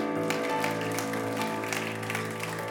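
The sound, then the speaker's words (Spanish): A church audience applauds steadily and loudly for Christ during a sermon, a dense wash of clapping hands, with sustained instrumental music tones playing underneath throughout. “Dele ese aplauso fuerte a Cristo.”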